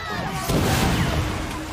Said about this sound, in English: love how you can hear vaguely the twin cannons on that AT-ST.